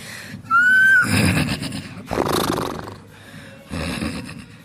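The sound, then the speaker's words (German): A person imitates a horse whinny: a rising, quavering squeal followed by loud snorting and breathy blowing bursts, with no speech. “Hoch, ey, du kannst super gut Pferde nachmachen.”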